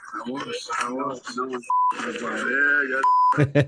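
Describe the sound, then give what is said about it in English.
A man talks while a steady electronic censor bleep twice cuts over his words, each tone short, abrupt and loud, with speech resuming between and after them. “No one beep with a Biden.”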